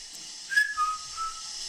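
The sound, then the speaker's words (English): A short high-pitched whistle that dips slightly in pitch over about a second, heard against a steady background hiss with no talking. “Okay, because I heard a high pitched whistle.”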